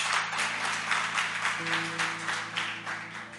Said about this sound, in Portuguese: Oh, aplauda a palavra de Deus.